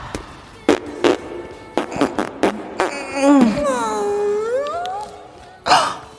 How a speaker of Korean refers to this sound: 방귀를 뀌었다. 어, 어, 독한 냄새. 방귀 맞네, 맞아.